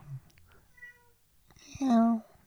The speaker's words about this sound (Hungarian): De nyávog is. És még nyávog is, bezd meg.